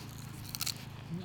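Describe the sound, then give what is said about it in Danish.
A single crisp bite into a fresh wasabi plant growing in a garden bed, fed to someone: a short crunchy snap against low background hum. “Du får lige den ene bid. Ja, du bare fodrer mig.”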